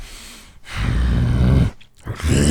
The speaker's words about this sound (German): Ich könnte schwören, das Knurren wäre echt.